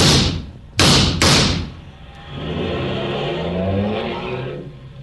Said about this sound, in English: He got away, didn't he, Mr. Clover? In a car.